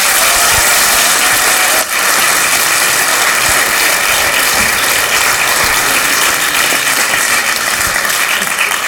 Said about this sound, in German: Einen großen Applaus, Dankeschön.